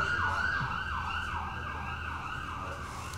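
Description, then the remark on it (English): An emergency vehicle siren wails outside in a steady rising-and-falling pattern, cycling about every half second, moderately loud over a low rumble of traffic, with no one speaking. “Hear that? Are they coming? The hood, baby.”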